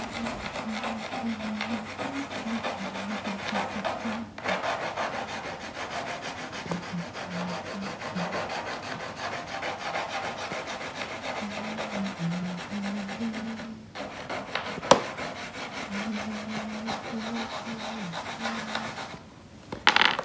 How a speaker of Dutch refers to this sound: Met mijn lievelingspotlood herhaal ik de strepen van de beweging van de vorm. ik beweeg iets en de houten planken geven me een ritme.